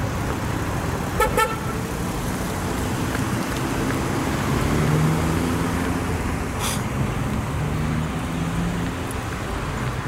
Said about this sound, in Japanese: 今あの車乗ってる人からクラクション鳴らされてちょっとびっくりしたんですけど朝の挨拶でした